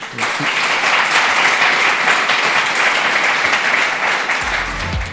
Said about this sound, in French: Applaudissements